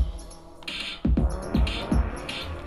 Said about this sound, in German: ändere das jetzt in einen etwas interessanteren Bass-Sound.